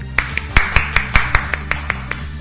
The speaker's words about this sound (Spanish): Así es que démosle un aplauso también.